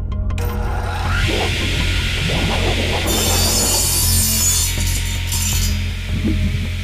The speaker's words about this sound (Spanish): Atentos con el extintor. Activaré la motosierra. ¡Atentos!